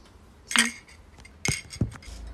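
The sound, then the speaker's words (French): Glasses clink together in a toast at a brunch, a bright ringing chime followed by a couple of lighter clinks and knocks of tableware, with no one talking. “Du coup, je vous laisse un petit audio pour vous immerger avec nous dans ce brunch. Tchin.”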